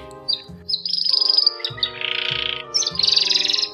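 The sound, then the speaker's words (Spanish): A canary in a round white wooden and wire cage on a house balcony chirps and trills in quick, bright bursts, fairly loud, with short pauses between phrases over a steady tonal backdrop; no one speaks. “Empecé por alfabetizar la lengua del canario, por estudiar su estructura”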